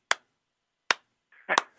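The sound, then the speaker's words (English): A slow clap: three sharp, loud hand claps spaced widely apart, the last one blurred by a brief burst of softer rustling noise. “Let me give you a slow clap.”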